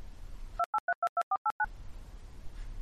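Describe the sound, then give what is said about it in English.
A quick run of eight short, loud electronic beeps, like phone keypad tones, evenly spaced over about a second and standing alone against faint background hiss, used as an editor's tone marking where a segment of recording has been removed. “Whenever this happens, you'll hear our editor's tone”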